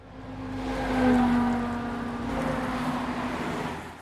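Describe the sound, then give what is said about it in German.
Steady roar of traffic on a four-lane expressway beside a bike path in Salzgitter, Lower Saxony, Germany, with a droning engine tone, swelling as a vehicle passes around the first second, then a continuous rushing wash of cars. No voices. “Dieser Radweg im niedersächsischen Salzgitter zum Beispiel verläuft neben einer vierspurigen Schnellstraße.”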